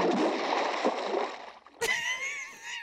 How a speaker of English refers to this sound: Into the water you went. It was like a lake right?